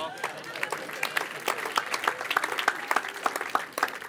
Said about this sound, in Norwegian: Ja! En applaus for mor